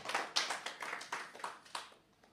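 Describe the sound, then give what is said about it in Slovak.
A short burst of crowd applause for the Lord, quiet, with uneven overlapping claps that gradually thin out and fade toward the end. “To chce potlesk pánovi.”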